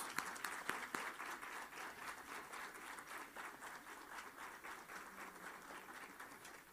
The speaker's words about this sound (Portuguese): Essas palmas estão bem presbiterianas, né?